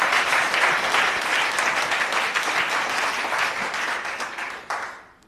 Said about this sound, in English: Come on, let's give the chaplain a round of applause. He's going to be doing the welcome for us.